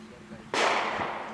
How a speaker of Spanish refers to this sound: Los tiros son acá, boludo, me da mucho miedo. Son acá. Son acá dentro.